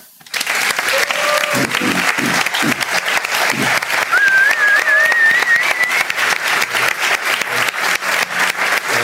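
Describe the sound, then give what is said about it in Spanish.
A large audience bursts into sustained, loud applause for Ferran Adrià, a dense wash of clapping that runs throughout, with a whistle rising above it midway and faint cheering voices mixed in. “Por favor, les pido un aplauso grande, enorme, sonoro para Ferran Adrià.”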